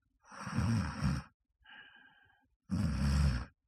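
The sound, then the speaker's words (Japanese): A person imitates their own snoring, as recorded by a sleep-tracking app, at about the same volume: two loud, rough breaths about a second each, with a softer, quieter breath between them and no speech. “私一応ね、聞いてみたんですけども、寝言は言ってなかったんですよね。いびきでしたね。なんか、みたいな感じの。音量的にも今ぐらいの感じですね。”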